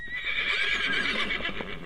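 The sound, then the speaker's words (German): Rhythmic drumming music that sounds like hoofbeats clip-clopping on hard ground, a run of uneven knocks under a steady high, bright tone that stays loud throughout the short clip. “Es klingt nach Hufgetrappel. Irgendwie so auf so einem harten Boden oder wo so Staub liegt und dann der Staub rumfliegt.”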